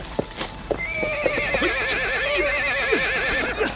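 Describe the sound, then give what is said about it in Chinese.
A tired horse that can barely keep running lets out a long, high, quavering whinny that wavers up and down for about three seconds, with a few sharp hoof clops at the start and no voices. “警察，马快跑不动了，咋办？ 骑马上山，往山里钻。”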